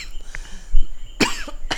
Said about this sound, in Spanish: Si tosemos no es corona.